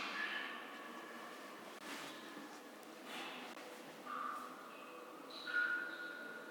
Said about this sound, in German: Ja, das, das sind die Geräusche einer Höhle, in der Wasser tropft. Mhm. So ein richtiges Höhlenfeeling.